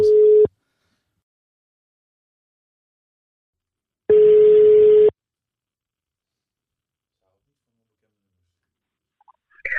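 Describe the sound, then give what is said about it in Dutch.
A phone line's call tone as someone places a call: a steady electronic beep sounds briefly, then after a long silent gap a second, longer beep follows, with faint noise creeping in at the very end. “Oké, dan gaan we bellen.”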